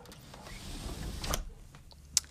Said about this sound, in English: And before we do that, I'm just going to close my window for a moment because I don't want there to be any echo or any other noises